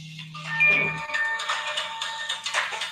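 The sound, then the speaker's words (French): A phone rings with a bright electronic ringtone, steady high tones overlapping in a short melodic pattern, fairly loud and with no one speaking. “Euh, désolé, j'ai un petit téléphone.”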